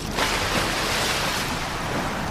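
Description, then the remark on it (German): Loud, continuous roar of crashing ocean waves with rushing surf, swelling slightly near the start and then churning steadily, with no voices. “Eduardo kämpfte gegen die Wellen.”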